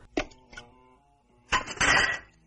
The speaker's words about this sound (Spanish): Lo tira por el retrete, se dispone a tirar de la cadena pero ésta se suelta.